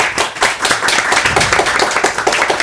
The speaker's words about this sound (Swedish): Varmt välkomna, en applåd!